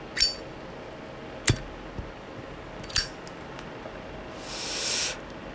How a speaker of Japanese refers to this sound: 今皆さんのお耳にねこの久しぶりに「ジッポの音をお聞かせしてあげましょう